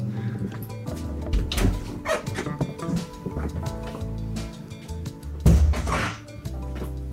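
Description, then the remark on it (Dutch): Several heavy impacts, with two stronger knocks standing out, ring into a long, booming echo off fairly close walls. The echoes smear together so the separate hits blur into one sustained, resonant rumble with no talking. “Eigenlijk is het een soort echo natuurlijk dat je hoort.”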